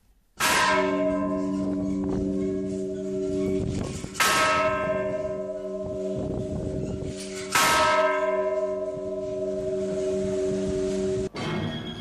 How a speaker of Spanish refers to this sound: Travis situó a un soldado en el campanario de la Catedral de San Fernando para que diera la alerta, y las campanas empezaron a repicar en mitad de la madrugada.